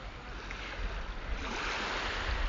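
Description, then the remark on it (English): Tide waves come in at a harbour on the east coast of Scotland, washing steadily onto the shore with a continuous rushing hiss and a low rumble, moderately loud, with a little wind buffeting the microphone and no voices. “And if I just get a wee bit closer here to the waves, I'm just watching the tide coming in here. you can hear the water just coming in here.”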